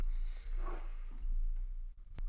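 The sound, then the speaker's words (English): A window in an office is opened: a soft scraping slide, then a low steady rush of air, ending in a sharp click of the latch or frame. “I'm gonna go open my window one second.”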